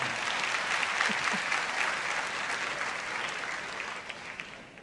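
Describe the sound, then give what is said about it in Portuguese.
An audience applauds steadily, a dense wash of many hands clapping that holds a fairly even loudness for several seconds before easing slightly toward the end. “Vamos aplaudir, irmão, por favor, irmão.”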